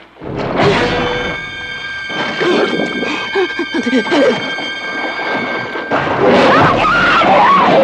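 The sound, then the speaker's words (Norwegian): Dramatic trailer audio for the shark film Haisommer: loud, thundering crashes and rumbling effects under a steady orchestral score with sustained high, ringing tones, building in dense surges before a final loud swell. “Det var traileren på Haisommer.”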